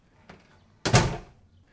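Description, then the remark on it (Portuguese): An apartment building's front door is opened by someone arriving home: a small click of the latch, then a loud, broad clunk and rush of the door moving that quickly fades, with no voices. “Abriu a porta do prédio e disse olá a dois clientes do seu vizinho que desciam as escadas”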